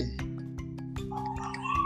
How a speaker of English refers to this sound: whoa, oh my God. That was a big. Bird. I don't know if y'all heard that. yeah, that was, a, that oh was screaming.